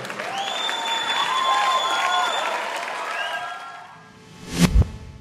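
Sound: audience applause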